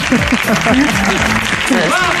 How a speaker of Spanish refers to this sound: A mí me llama mucho la curiosidad, me llama mucho la atención, me da curiosidad ese arranque de los aplausos diciéndola guapa, guapa.